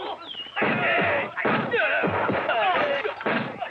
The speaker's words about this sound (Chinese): 陆阿狗被洋人打得趴在地上，就这样他怕惹恼洋人，真是让人啼笑皆非。